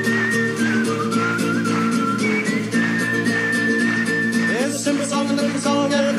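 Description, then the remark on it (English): Someone whistles a steady, high melody over busy instrumental music, the whistled notes stepping along clearly above the accompaniment. “Don't laugh, whistle.”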